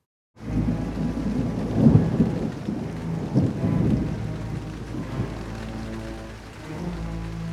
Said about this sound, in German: Das Unwetter war furchterregend. Ein plötzlicher Windstoß hörte sich an wie ein ferner Kanonendonner.